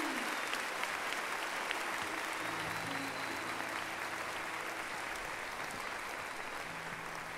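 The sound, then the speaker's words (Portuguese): A crowd claps steadily for people attending for the first time that day, a dense, continuous wash of applause at an even loudness throughout, with faint low tones sustained underneath and no voices standing out. “Nós queremos dar uma salva de palmas para vocês que vieram pela primeira vez hoje.”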